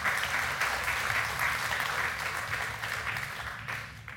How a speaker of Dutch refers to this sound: Ja, u mag absoluut applaudisseren voor deze prachtige voordracht.